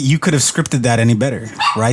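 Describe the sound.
A dog barks and yips in the background, partly buried beneath a person talking continuously.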